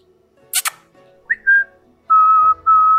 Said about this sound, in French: Je vais siffler dans le sifflet à plusieurs reprises.